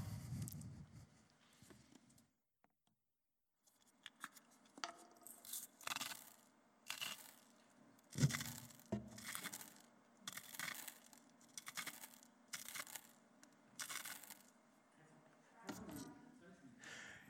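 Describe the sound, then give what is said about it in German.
A salt mill being ground in a series of about ten short, gritty, crunching bursts that repeat in a steady rhythm. Each twist gives a dry, raspy scrape, moderately loud, with brief pauses between turns. “Ich habe eine Salzmühle mitgebracht.”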